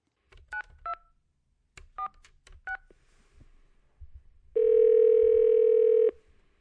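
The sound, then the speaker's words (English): Several short touch-tone beeps from a landline phone keypad, dialed in a quick, uneven sequence to call the National Weather Service in Portland, followed by a steady, loud electronic tone held for about a second and a half. “Landline.”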